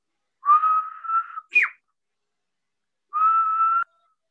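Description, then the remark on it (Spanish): A loud human whistle used as a signal: a long steady note that ends with a sharp downward swoop, then after a pause a second sustained note. No one speaks. “y hace este silbido.”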